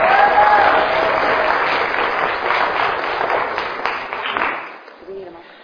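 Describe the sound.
An audience applauds as two pastors are asked to come up for a Q&A, with dense, steady clapping that stays loud for several seconds, then thins and fades toward the end as a voice briefly cuts in.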